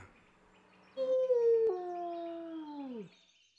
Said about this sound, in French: Au bout d'une minute, un loup sort des fourrés.